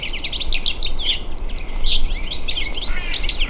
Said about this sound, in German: Der Stieglitz. Kann einem recht leid tun.